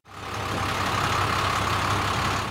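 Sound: delivery truck engine idling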